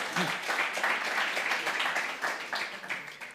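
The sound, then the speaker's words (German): Steady audience applause fills the whole stretch, a dense wash of many hands clapping at moderate volume, with faint crowd voices mixed underneath. “ein Applaus”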